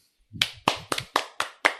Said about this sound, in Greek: καλεσμένος πρέπει να χειροκροτήσουμε. Ε, πάντα.